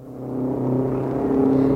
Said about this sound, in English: seeing who can spot the most out of state license plates on the cars that go whizzing past.